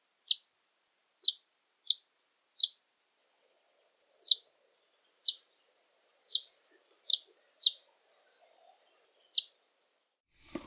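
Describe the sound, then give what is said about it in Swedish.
An Eastern Bonelli's warbler gives ten short, clipped chip calls, sparrow-like and fairly high, spaced irregularly about a second apart against near silence. Each note is crisp. “Medan Balkansångare har små, korta, nästan sparvlika chiffläten.”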